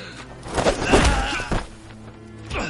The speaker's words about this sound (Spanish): Eren recibe puñetazos.